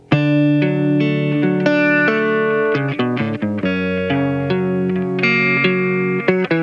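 A clean electric guitar plays a song intro, with chiming picked notes and chords in a steady, gently syncopated pattern, treated with chorus and reverb and played alone without any voices.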